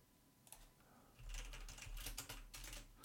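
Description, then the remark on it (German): Rapid clicking of computer keys, a quick irregular patter of keystrokes, starting sparse and then growing busier and louder with no voices. “du tippst schon wieder.”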